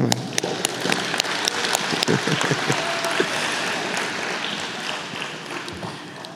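A crowd applauds steadily for several seconds for a young man who set up the cables: a dense wash of many hands clapping with sharp individual claps popping out, holding at a fairly loud, even level before easing slightly at the end.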